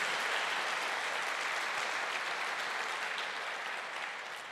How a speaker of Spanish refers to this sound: ¿Cuántos dan un aplauso al Señor por eso?